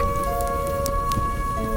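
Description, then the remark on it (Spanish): Wolves howling outside at night in long, drawn-out tones, several voices overlapping and holding steady pitches, over a low rumbling, crackly background noise. “Se reunían en torno a la chimenea, charlaban en voz baja y oían a los lobos aullar afuera.”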